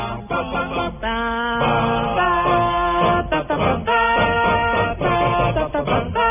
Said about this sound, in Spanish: e hizo la versión a capela del tema de Star Wars y suena así. Al principio suena como los Minions.